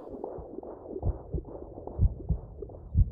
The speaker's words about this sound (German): Hey, hörst du das? Den Herzschlag?